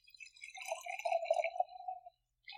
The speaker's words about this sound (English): It's also just weird to pour something out of a can and it not really be fizzy. I mean, there's some bubbles, there is, but I think it's more so just movement.